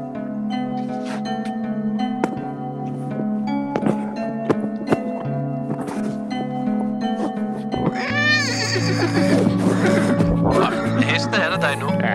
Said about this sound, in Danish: hest, hest.